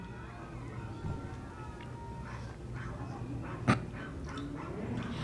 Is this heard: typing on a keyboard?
no